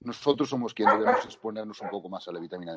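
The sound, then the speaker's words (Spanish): A dog barks repeatedly in the background while a person keeps talking over it; the barking is moderately loud and partly masked by the voice. “Lo siento por el perro, no sé si lo escucháis, pero...”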